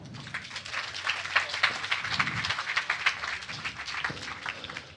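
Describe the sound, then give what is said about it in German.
A crowd applauds steadily for several seconds, a dense, even patter of many hands clapping at a fairly loud level with no talking over it. “Äh, Applaus für ihn bitte.”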